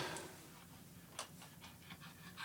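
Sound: dog panting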